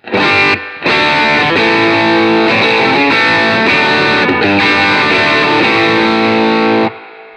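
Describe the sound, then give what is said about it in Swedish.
Electric guitar through an overdrive pedal, with the drive backed off slightly and the mode switch at about one o'clock, plays a run of thick, sustained distorted chords, loud and continuous with a brief break near the start, then rings out and stops abruptly; no one talks. “backa lite på driven.”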